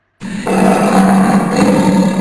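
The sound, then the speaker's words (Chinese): A loud, sustained white tiger roar, low and rumbling with a raspy, growling texture. It starts abruptly and holds steady for about two seconds without pause. “咆哮一声。顿时山摇地动，所有人都吓坏了。”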